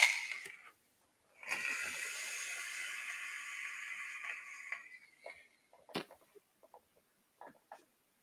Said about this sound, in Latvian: Jā, jā tvaika ap, apjoms nav tas lielākais, es uzreiz pateikšu. Jā, ar, ar šo te mēs, mēs lielākas tvaikas pūtām pie, pie, pie 150 vatiem, jā, lūk, man stāv 150 virsū.